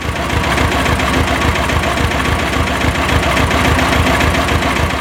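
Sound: tractor engine idling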